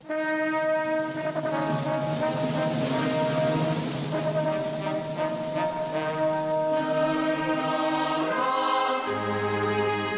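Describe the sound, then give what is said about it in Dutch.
A loud, brassy orchestral fanfare with sustained trumpet chords over a rolling drum, swelling as the opening of the national anthem of Malaysia before shifting to a lower held note at the end. “Tromroffel, trompetgeschal, Maleisië, mijn land.”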